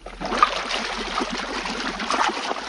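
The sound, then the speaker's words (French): Jacuzzi water bubbles and churns steadily throughout, a continuous frothy gurgling at moderate loudness with no voices. “Le jacuzzi est un bain à remous, monsieur.”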